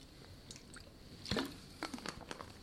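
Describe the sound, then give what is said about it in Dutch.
A quiet sip from a drink: soft wet mouth noises and a small gulp, with a sharper click partway through and faint smacking afterward. No one speaks. “Even een slokje.”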